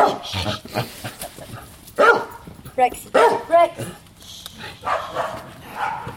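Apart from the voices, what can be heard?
dog barking and whining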